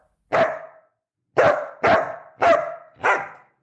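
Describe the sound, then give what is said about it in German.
A forester's dog at the foot of a tree in the Neuhaldensleben forest near Magdeburg barks excitedly, five loud barks: one alone, then after a short pause four more in quick, even succession. No one speaks. “Plötzlich bleibt sein Hund am Fuße eines Baumes stehen und beginnt aufgeregt zu bellen.”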